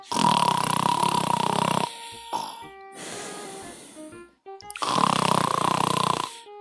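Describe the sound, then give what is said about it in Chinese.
Loud, rumbling snoring of a sleeping father mole: two long rasping snores separated by a quieter, whistling breath in between, with no talking. “总是吃过饭后马上就睡觉，不一会儿鼾声就震天响。”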